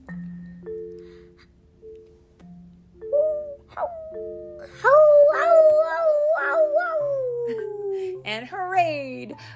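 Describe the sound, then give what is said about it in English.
People imitate dogs howling as the pups in a Paw Patrol story, several voices joining in long, wavering, overlapping howls that rise and fall, loud, after a quieter stretch of low humming tones at the start. “All the pups howled.”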